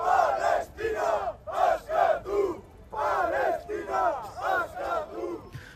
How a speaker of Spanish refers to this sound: Entre gritos de Palestina Escatú, Maccabi fuera de Europa o genocidas ha transcurrido la gira a la que habían llamado Indar Basconia y BDZ Araba.